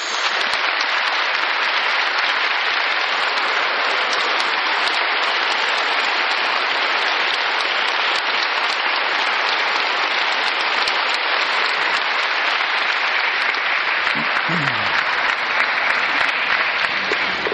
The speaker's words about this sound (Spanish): Palabra del Señor. Fuerte aplauso a la palabra de Dios.